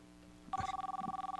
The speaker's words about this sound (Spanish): Cuando de repente sonó el teléfono. Tres veces.